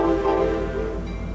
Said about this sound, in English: Doors are closing, and the train is about to set off for his next station.